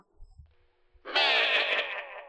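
After a second of near silence with faint low rumbles, a loud, sustained goat bleat bursts in, wavering and heavily echoed as a 'space goat' effect.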